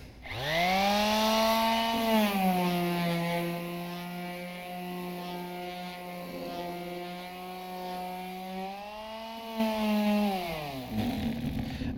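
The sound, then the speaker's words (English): A power sander runs alone with a steady, buzzing motor whine, its pitch dropping slightly after start-up, holding steady, then rising again before it winds down at the end. “Sander cuts through all the grime, cuts through all the crap, cuts through all of that to get to the very core, to the surface, to the reality.”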